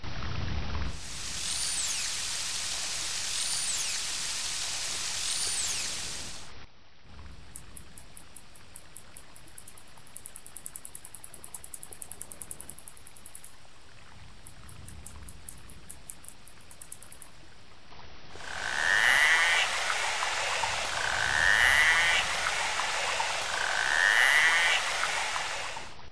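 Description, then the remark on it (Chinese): Narwhal echolocation calls recorded underwater with a hydrophone by a Hokkaido University research team in July 2019, with Inuit help: bursts of rapid, high-pitched clicking that speed into buzzy, drill-like trains, followed by a few repeated short chirps, with no one speaking. “不过，这些声音经过研究发现，其实是类似于回声定位的叫声。”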